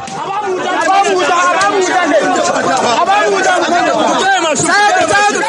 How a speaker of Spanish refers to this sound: este sonido pertenece a un linchamiento de una chica cristiana en Nigeria.